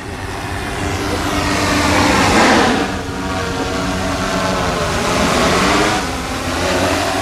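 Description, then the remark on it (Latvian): A drone demonstrated during Space Week by Jakub Karaš, president of the Czech unmanned aerial alliance, flies with a loud, continuous buzzing whine made of layered tones whose pitch drifts up and down, swelling in intensity twice over several seconds. No one speaks. “Kosmosa nedēļas ietvaros dronus demonstrē Jakubs Karašs, Čehijas bezpilota gaisa alianses prezidents.”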